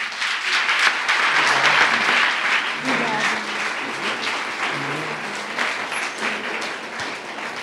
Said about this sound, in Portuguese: Dá uma salva de palmas.